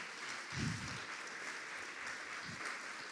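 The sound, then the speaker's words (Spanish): A church audience claps for God, a dense continuous wash of many hands with a couple of low thumps, moderately loud. “Déselo fuerte, si se lo va a dar, déselo. No ande con medios aplausos ahí para Dios.”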